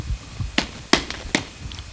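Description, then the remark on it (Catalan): Three dull thumps of a foot knocking against the floor, unevenly spaced and fairly loud, each a short, deep knock with a sharp edge; no one speaks. “Ha estat el meu peu contra ah, el terra.”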